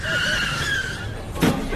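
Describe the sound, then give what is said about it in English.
A car skids on a road with a loud, sustained high-pitched tire squeal lasting over a second, then a sudden short crashing thump as it hits a person on the road. “you have crashed into someone. You have killed someone.”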